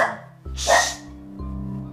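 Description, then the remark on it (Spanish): A female dog pants and lets out one short, breathy bark midway, over a low steady hum, with no one talking. “Óiganla, ahí está, jadeando.”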